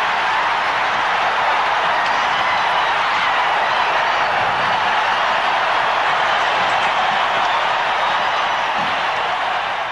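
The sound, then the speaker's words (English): A hockey arena crowd roars after a victory as the game ends, following Eruzione's goal and Al Michaels' call "Do you believe in miracles? Yes!". It is a loud, unbroken wall of cheering and shouting that holds steady for the whole stretch with no single voice standing out. “and even a young Al Michaels there, letting it uh, drag out there, letting the crowd kind of take over.”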